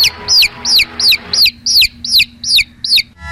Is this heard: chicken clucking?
yes